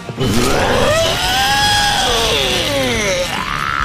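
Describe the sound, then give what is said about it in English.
A person's voice imitates a dinosaur roar: a single long, loud, strained call that rises in pitch, holds, then slides back down over nearly four seconds. “I'm back, but this time I'm a dinosaur!”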